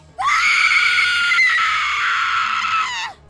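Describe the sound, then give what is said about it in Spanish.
A woman lets out one long, loud, high-pitched scream of horror lasting about three seconds, on finding her grandmother killed with a machete, sustained and piercing before cutting off abruptly, with no speech around it. “Sus gritos de horror fueron tan fuertes que sus hermanos Gilberto, Patricia, Alfonso y dos mujeres de la servidumbre pronto se enteraron de lo sucedido.”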